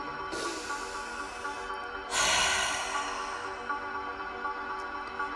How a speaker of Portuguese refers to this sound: Tome uma respiração bem profunda, assim.